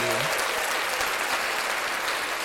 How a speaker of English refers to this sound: Nice. Let's clap that up for the brother.